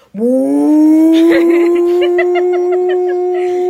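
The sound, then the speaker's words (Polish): A voice loudly imitates a vacuum cleaner starting up: a whining tone swoops upward, then holds steady for several seconds with a faint fluttering edge before cutting off. “Nagle włącza odkurzacz i nigdy czegoś takiego nie słyszałam.”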